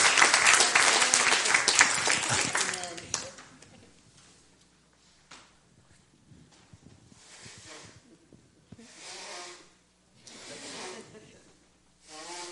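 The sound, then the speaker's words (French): A church audience applauds Jesus in a loud, dense burst of clapping that lasts about three seconds, then drops away into a quiet stretch broken by a few faint voices. “On applaudit Jésus.”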